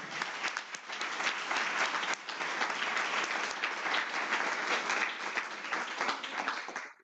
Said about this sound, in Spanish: Eso merece un aplauso fuerte, yo lo sé.